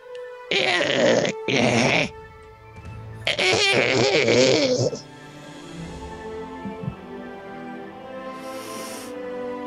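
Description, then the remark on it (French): A voice mimics a creature clearing its throat: two short, rough, gravelly bursts, then a longer raspy rumble, loud, before fading into quiet background noise. “Elle, euh, c'est comme si elle se raclait la gorge un peu.”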